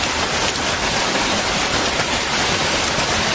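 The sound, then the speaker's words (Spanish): Heavy rain pours down steadily on a two-way street in a dense, continuous hiss, loud, with no voices or breaks throughout. “Más tarde, Ali camina sola bajo la fuerte lluvia empapada.”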